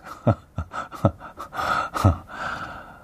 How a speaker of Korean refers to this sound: 숨소리가, 하하, 마라톤 하신 거죠? 하셨습니다. 어, 마라톤은 아니고, 그 단거리, 예, 네, 단거리. 한 200여 미터 정도.